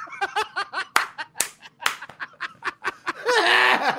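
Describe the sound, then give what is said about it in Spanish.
Bursts of breathy laughter with a few sharp hand claps mixed in, roughly three loud slaps spaced about half a second apart, ending in a sustained high-pitched laugh. “Aquí nos estamos riendo como cuando se ríe Michael Jackson, que eh, Michael, Mike Tyson, que se aplaude y se.”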